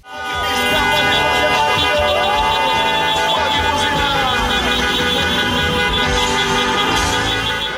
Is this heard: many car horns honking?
yes